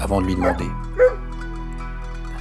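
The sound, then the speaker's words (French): A man speaks briefly, then a single short bark from a dog trotting alongside a walker on a road rings out over a steady low hum, followed by quiet. “Alors qu'il marchait depuis un moment, un chien le rejoint et trottina à ses côtés,”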